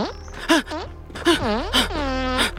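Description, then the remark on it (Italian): A man, a drug addict defecating behind a scooter, lets out a series of strained, wavering groans and grunts, his voice rising and falling as if straining hard, with brief pauses between efforts. “Il tossico no, no. sta cagando dietro il tuo scooter.”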